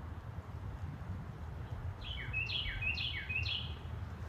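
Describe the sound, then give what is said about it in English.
A bird calls four times in quick succession, each note a bright, sliding chirp, heard fairly clearly over a steady low rumble after a couple of seconds of background noise. “Oh, no, that, I think that bird.”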